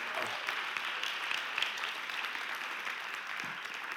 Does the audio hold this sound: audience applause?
yes